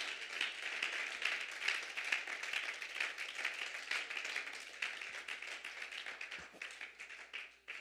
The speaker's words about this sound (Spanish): Alguien que lo haya sentido conmigo, que diga gloria a Dios en esta hora. Le puede brindar un mejor aplauso a Él en esta hora.